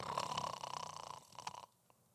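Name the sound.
voice imitating snoring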